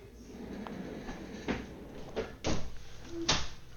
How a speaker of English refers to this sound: Sorry, I just needed to close that door.